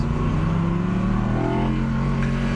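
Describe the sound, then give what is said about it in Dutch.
The V10 engine of a rear-wheel-drive R8 sports car revs loud, its dense, rich growl holding steady for a few seconds with pitch swelling and easing slightly, with no voices. “Deze motor klinkt zo verschrikkelijk goed echt feest.”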